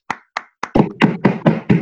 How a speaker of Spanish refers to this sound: con todos ustedes, fuerte el aplauso.